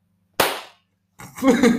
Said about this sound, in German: Weißt du, wie ich gebe geb dir jetzt militärischen Applaus. Weißt du, wie der geht? Ja.